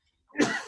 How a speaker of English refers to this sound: bless you